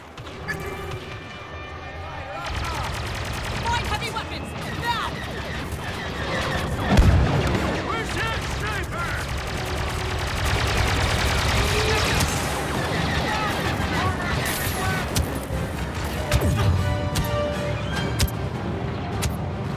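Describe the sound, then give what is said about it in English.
Dense video game battle noise with repeated booming explosions from detonators and bursts of gunfire layered over a constant, loud backdrop of action effects and music, with a big blast standing out midway, as a hangar is shut down. “More detonators. More explosions!”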